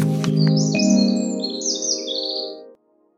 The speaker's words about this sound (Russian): Орлан белохвост. Вид занесен в Красную книгу Архангельской области и Красную книгу России. Это крупная хищная птица из семейства ястребинных.